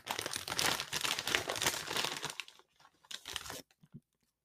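Loud crunching of someone chewing crunchy, white, poofy kettle corn, dense and continuous at first, then thinning into a few scattered crunches before falling silent. No one speaks.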